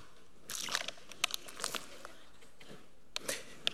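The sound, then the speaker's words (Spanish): A plastic water bottle is squeezed, giving off irregular crinkling crackles and sharp crunchy pops in several bursts over a few seconds, with a brief wet spurt of water amid the plastic noise. “¿Ves esta botella que está aquí? Si yo agarro esta botella y hago esto,”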